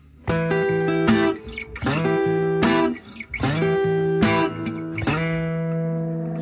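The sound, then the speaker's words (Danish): Instrumental opening of a song: loud, sustained tonal chords struck in a steady rhythm, each hit starting with a sharp attack, with no voices present. “Skal vi, ikke, øh, skal vi ikke tage at høre den? Nu skal jeg lige finde den frem her”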